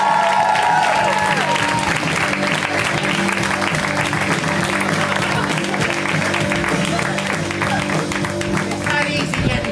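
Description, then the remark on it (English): Sustained audience applause for comedian Andy Kindler at a comedy show, dense steady clapping at an even loudness with a murmur of crowd voices and a few cheers mixed in. “Let's hear it right now for Andy Kindler. Give it up for Andy.”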